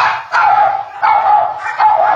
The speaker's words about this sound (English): And there's the dogs. And that's okay.